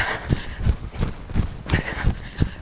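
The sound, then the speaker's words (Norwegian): Running footsteps thud in a steady, quick rhythm, about seven strides in under three seconds, as a runner starts the last of four intervals in a training session, moderately loud with no talking. “Og vi gjør oss klare, og vi går i gang. Løper i gang.”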